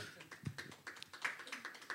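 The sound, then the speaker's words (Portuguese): A short run of soft hand claps from a few audience members answering a question, the sharp slaps coming unevenly and overlapping at a quick pace, fairly quiet throughout with no talking. “Há pessoas que bateram palmas duas vezes, certeza.”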